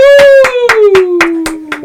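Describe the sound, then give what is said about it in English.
A slow, even golf clap in a studio in Milton, Ontario, given for an intro: about eight soft claps spaced roughly a quarter second apart, over a steady tone that slides gradually lower throughout. “yeah, yeah, golf clap, that's for sure.”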